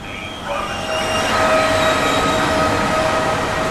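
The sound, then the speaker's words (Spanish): A train locomotive rumbles steadily as it pulls away from a station platform and gathers speed, with a broad low roar and faint metallic whine tones rising over it; the noise swells slightly after the first half second and then holds, no voices present. “Fueron corriendo por el andén mientras la locomotora tomaba cada vez más velocidad.”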